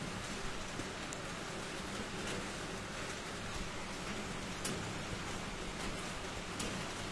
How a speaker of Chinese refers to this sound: 哦，现在外面的雨声小了好，小了一点了。每天晚上能听一听那这雨声的话，估计的话，很多人都不会失眠。